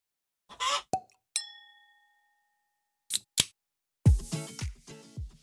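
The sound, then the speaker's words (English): Drink cans knock together in a toast. One bright clink rings out and fades slowly among a few short metallic taps, followed by a burst of rattling, fizzy handling noise. “Clinking our cans because we're ready to drink.”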